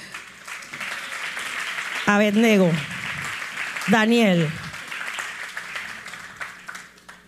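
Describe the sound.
A crowd applauds steadily for several seconds during a sermon, in honour of the biblical Shadrach, a dense wash of clapping that stays fairly even throughout, while a man's voice calls out twice over it.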